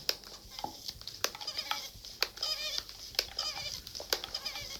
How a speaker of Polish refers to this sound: Trochę ta pompka, ten tłok wydaje nieco dziwne tak. odgłosy z siebie. No bo to wiesz, no bo jakąś tam siłę w to wkładam, no tak. a on ma opór, bo tam jest ciśnienie.